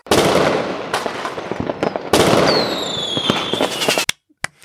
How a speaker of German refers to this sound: Ab geht's, das Feuerwerk für Olli.